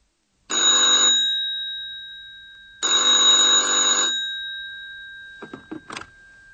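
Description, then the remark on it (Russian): A telephone rings twice with long, bright bursts separated by a pause, then a few short clicks as the receiver is picked up. The ringing is loud, with no voices. “Послушайте разговор по телефону между Андреасом и господином доктором Тюрманом.”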